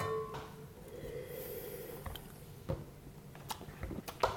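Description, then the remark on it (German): Wine pours steadily into a glass with a low, bubbling fizz as it foams, followed by a few sharp clinks and taps, no one speaking. “Ah, ist das schön, es schäumt.”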